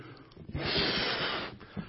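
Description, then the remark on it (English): A balloon is blown up by mouth: a strong, steady rush of breathy air lasting about a second, framed by shorter puffs and inhales before and after. “And He fills us like air fills this balloon.”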